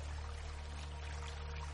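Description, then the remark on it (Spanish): Water pours steadily over open hands in a continuous, even splashing stream, fairly soft, with a low hum underneath and no talking. “Abre tus manos bien y deja que el agua las limpie.”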